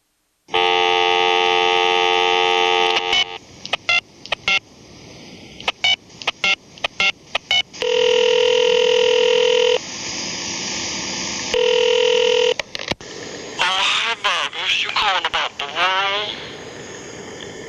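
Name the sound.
telephone dialing tones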